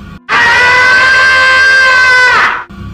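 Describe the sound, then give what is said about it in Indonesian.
A voice imitates a woman screaming for help on the floor below in a guest house: one loud, sustained, high-pitched cry held for about two seconds, its pitch sagging slightly before it cuts off, with no other sound around it. “terus kan aku kan di lantai dua itu baru rebahan beberapa menit nggak nyampe setengah jam tiba-tiba ada yang teriak perempuan di bawah yang eh, di lantai bawah”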